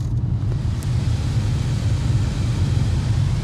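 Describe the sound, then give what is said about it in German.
A car's air conditioning fan rushes steadily inside the cabin on a 35-degree day, a constant airy hiss over a deep low rumble, with no voices and no change in level. “Ich meine, ich sitze hier im Auto, die Klimaanlage ist an und normalerweise ist die so an.”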